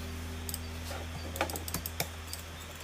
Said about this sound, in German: Guck mal, ich bring dir mal Butterfly. Guck mal, guck mir mal zu. Du musst mit beiden Fingern gleichzeitig klicken. So bekommst du am meisten Klicks durch und machst richtig viel Schaden.